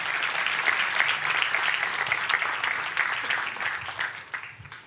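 A crowd claps steadily for about five seconds, a dense wash of overlapping hand claps that gradually thins and tapers off toward the end. No one speaks over it.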